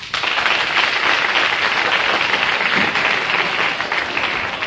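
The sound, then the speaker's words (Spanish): A crowd applauds steadily to welcome guests who arrive with guitars, a dense wash of many hands clapping at once, loud and sustained for several seconds without any voices standing out. “Vamos a darles la bienvenida con un aplauso matusalénico.”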